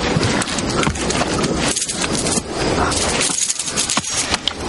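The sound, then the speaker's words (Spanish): Hooves of a black horse clip-clop steadily, a continuous dense run of hoofbeats over a broad, noisy outdoor background with no clear gaps. “Carver va hacia el caballo”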